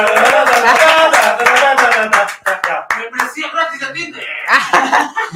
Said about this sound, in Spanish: Bravo, bravo. Un aplauso, un aplauso. Bravo, bravo.